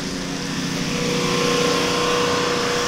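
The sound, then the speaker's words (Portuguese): A water pump's motor drones steadily and loudly, pumping water out of flooded shops in Alcântara, a constant engine-like hum with a buzzing tone that holds unchanged for the whole stretch, with no voices. “Este barulho que ouvimos é uma bomba d'água.”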